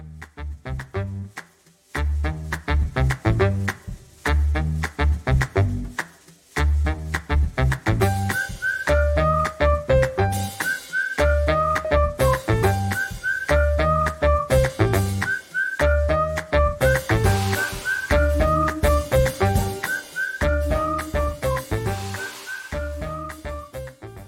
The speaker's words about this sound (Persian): اول چند ثانیه موسیقی گوش کنیم خودمون یه مقدار آروم شیم